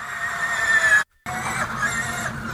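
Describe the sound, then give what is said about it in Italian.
A loud, steady high-pitched electric whine from an electric race car, with layered tonal harmonics, cut by a brief silent gap before the same shrill whir resumes. No one speaks. “Dai, rimetti sulla macchina elettrica, per favore.”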